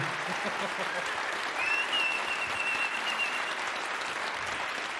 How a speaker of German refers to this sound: Seht ihr Leute? Einfach nur sagen und ich krieg Applaus.